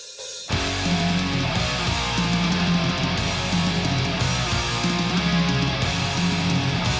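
A song by a German band from Thuringia, from a record released in 2019 on Evil Spell Records, kicks in after a brief moment of quiet, loud and dense with a thick, distorted full-band sound and a repeating low riff driving steadily throughout.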